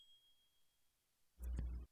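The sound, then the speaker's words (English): A single short ding sound effect, used as a burp counter, rings out loudly after a stretch of near silence, lasting about half a second before cutting off abruptly. No one speaks. “And can you do a ding for a burp counter?”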